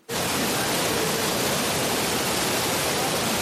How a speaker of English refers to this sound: This is actually the Jordan River during flood season